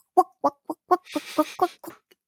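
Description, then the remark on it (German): A voice makes a quick series of about eight short, clucking syllables in a steady pattern, imitating a video game character's little footstep sounds as it walks, with a breathy rasp in the middle. “Und das ist, das ist so putzig und immer wenn er läuft, so”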